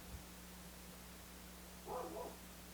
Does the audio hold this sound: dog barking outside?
yes